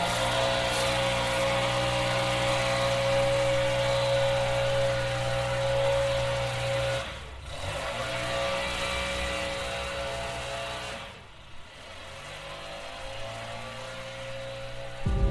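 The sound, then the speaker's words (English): A leaf blower drones loudly and steadily with a buzzing engine hum and a rushing airy hiss, briefly easing off twice before revving back up. No one speaks. “Why can't they put a muffler or something like that on these leaf blowers?”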